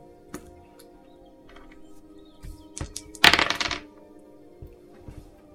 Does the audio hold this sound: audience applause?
no